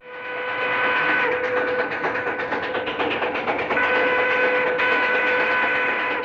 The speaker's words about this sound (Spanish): Y con el sonido de una locomotora a vapor nos alejamos completamente del universo medieval del último duelo